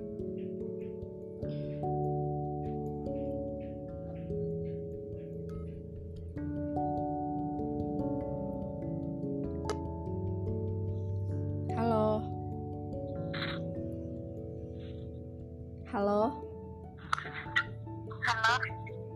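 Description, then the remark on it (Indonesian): A phone ringback plays a song through the line: a steady, fairly quiet melody with sustained tones and a singing voice rising near the end, with no one talking over it. “coba gue telepon aja dulu ya”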